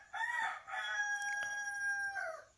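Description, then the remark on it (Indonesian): A rooster crows once, a loud cock-a-doodle-doo that rises, holds a long strained note, then drops off at the end, heard clearly on its own. “ada satu kepercayaan yang bilang bahwa ketika ayam berkokok tengah malam itu tadi ada malaikat lewat dan ketika ayam ini berkokok dan malaikat itu lewat”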